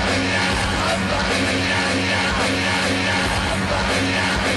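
Loud, harsh rock music blares nonstop from an outdoor stage, a dense distorted wall of sound as if the backing track were garbling and breaking down, with no clear singing.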